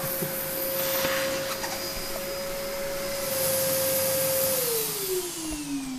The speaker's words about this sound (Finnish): No niin, nyt meni imuri välillä pois päältä.